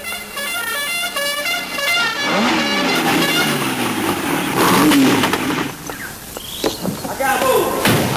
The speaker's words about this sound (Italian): Eh? Sigla. Eh. Sigla.